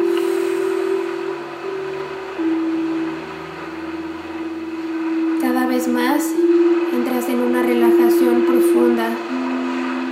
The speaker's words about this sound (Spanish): Esta meditación, esta recarga de energía y esta luz se ha expandido totalmente por el sonido de los cuencos y del mar.